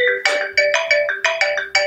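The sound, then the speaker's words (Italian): A bright electronic phone message notification tone plays a quick melodic run of about seven tonal beeps in a steady rhythm, loud with no voices. “A volte basta veramente un messaggino dalla persona giusta per cambiare di segno la giornata.”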